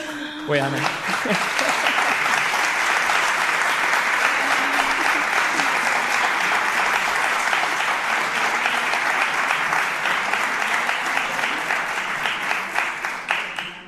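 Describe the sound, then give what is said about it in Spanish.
Sustained, loud audience applause with dense clapping that holds steady for over ten seconds, tapering slightly at the end, with a brief voice audible at the start. “a mí ya con ese aplauso solo me queda decir que vamos a seguir contando historias, por supuesto, que esperamos que sea 100 y 200 más y la que hagan falta, y que muchas gracias.”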